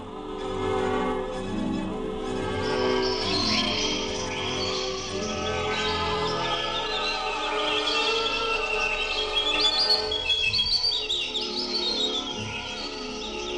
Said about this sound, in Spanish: Era una tarde hermosa. El sol brillaba entre los árboles del bosque, las hojas estaban doradas y verdes y los pajarillos libres cantaban entre las ramas.